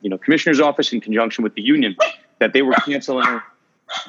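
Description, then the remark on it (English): The speaker's female dog Harper barks a couple of times, with short sharp yaps breaking in while a man talks steadily. The last bark comes alone after a brief pause in his speech. “That's my dog Harper.”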